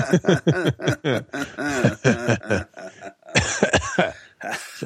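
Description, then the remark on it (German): A fairly loud bout of coughing: a rapid run of short hacking bursts, a brief pause, then a few more coughs mixed with throat clearing. “ich habe Hustenreiz.”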